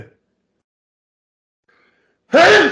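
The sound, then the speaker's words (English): After a long near-silent pause, one sudden, loud sneeze bursts out, a sharp breathy blast with a brief voiced edge. No one talks. “God bless you.”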